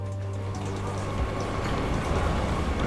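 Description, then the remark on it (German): Steady low rumble of a train station, with the heavy drone of a train rolling past and faint metallic clatter, continuous throughout. “Was machen Sie hier am Bahnhof?”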